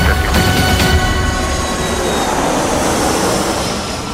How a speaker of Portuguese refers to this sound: Então roda a vinheta.